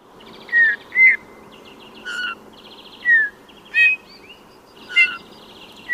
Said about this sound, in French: Il n'y a qu'à écouter le bouvreuil pivoine qui chante en posant ses notes ou doubles notes.